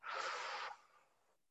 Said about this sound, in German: Was er mhm. macht, ist 10 Seconds Breath Work. Wir atmen ein, in den Bauch, durch die Nase, aus durch den Mund.